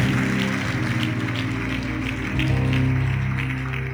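An audience claps steadily for several seconds, a dense wash of applause over a sustained, droning musical backdrop, fairly loud throughout with no clear voices.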